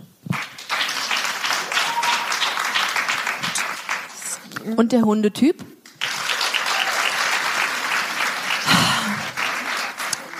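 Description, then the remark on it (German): A live audience claps in a sustained burst of applause after being asked who among them is a cat person, broken by a brief spoken question midway, then the clapping resumes and carries on to the end. “Wer ist hier der Katzentyp? Einmal klatschen.”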